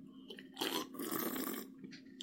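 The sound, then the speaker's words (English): A loud, hissy slurp of someone drinking sparkling water lasts about a second, then a brief softer gulp follows. No one speaks. “That's how I drink my sparkling water and my coffee and everything else that I consume.”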